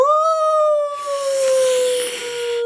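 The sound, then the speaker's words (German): A person imitates a wolf howl: one loud, sustained wavering note held for a few seconds, its pitch sliding slowly downward and turning breathier toward the end. “kannst du wie ein Wolf so, so jaulen wie ein Wolf?”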